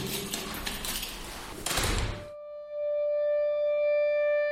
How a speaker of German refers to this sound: Und auch hier haben wir wieder eine verschlossene Türe, die wir jetzt aufschließen, um dann die Station entsprechend zu betreten.